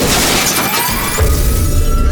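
Two buses collide on a street: a loud crash with glass shattering and scattering across the first second, followed by a heavy, rumbling low-end thud as the impact settles, without any voices.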